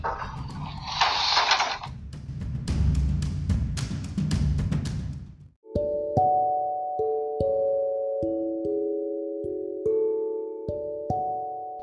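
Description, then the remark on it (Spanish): Busy carpentry workshop noise fills the first half, a rough grinding hiss broken by sharp knocks and clatter, then it cuts to steady, ringing musical tones stepping between pitches. “Verán ustedes, este es el sonido de una carpintería.”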